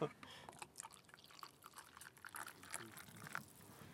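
Hot water is poured onto tea at a kiosk, a faint trickle broken by irregular small splashes and drips over a few seconds.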